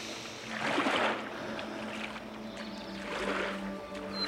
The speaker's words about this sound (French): Et je rame. Je traverse pour rejoindre l'autre rive.